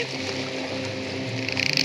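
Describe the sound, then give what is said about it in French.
A large boat rushes closer, its dense, steady roar of engine and churning water swelling noticeably louder toward the end. No one speaks. “Il approche vite ce bateau. Ça doit pas être une petite barcasse, dis donc.”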